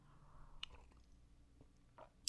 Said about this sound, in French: Je bois une gorgée de ma tisane en vous racontant ça. C'est pas la même tasse.